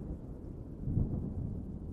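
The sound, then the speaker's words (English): A deep, continuous roll of thunder rumbles low and steady, swelling slightly in the middle, with no voices present. “As the thunder brings you peace,”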